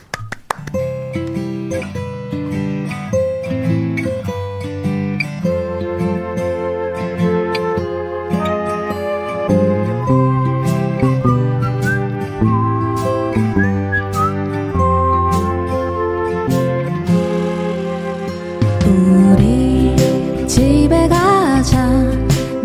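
pop song playing

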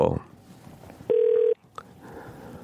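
telephone dialing and ringing

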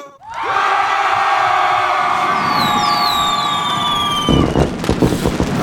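crowd cheering

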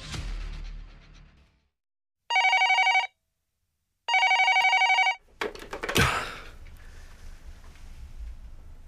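telephone ringing

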